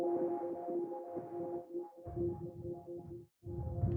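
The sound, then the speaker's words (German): A granular synthesizer drone of steady, layered tones with a grainy, fluttering texture, the sub-oscillator removed so only granular synthesis is heard, joined midway by added noise, a rough low wash that thickens the sound, briefly cuts out, then returns. “Jetzt gebe ich mal Rauschen rein.”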